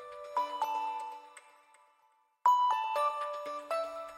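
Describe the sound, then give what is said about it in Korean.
A mobile phone ringtone plays a bright, tinkling melodic phrase, pauses briefly, then starts the tune again at a steady volume, heard alone with no voices. “생일이라고 전화했겠지? 받아?”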